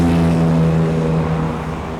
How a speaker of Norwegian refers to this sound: Trondheims mest bråkete vei.